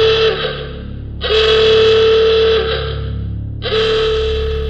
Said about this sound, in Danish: For lige i det øjeblik faren får sat senderen ned i tunnelsystemet, så lyder der en høj, konstant brummen og et meget højt hyl en gang imellem.